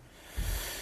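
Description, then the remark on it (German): A single short sneeze bursts out about halfway through, muffled and fairly soft, over a steady background hiss with no talking. “Gesundheit”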